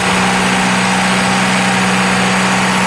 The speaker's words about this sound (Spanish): La alcaldesa de Patillas, que también enfrentará su primera tormenta, concentró el operativo municipal en el sector recio del barrio Guardarraya, donde verificaban esta bomba que controla los niveles de una laguna.